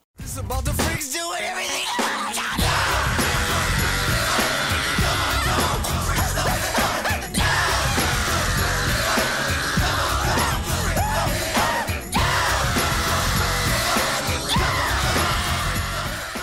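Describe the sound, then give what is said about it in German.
A male singer lets out a sustained, raw scream over a loud, dense rock backing track, the shrieking vocal staying harsh and strained throughout, with no spoken words. “Das klingt fast wie das Schreien eines Babys.”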